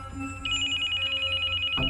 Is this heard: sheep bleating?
no